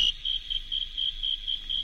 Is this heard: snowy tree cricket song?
yes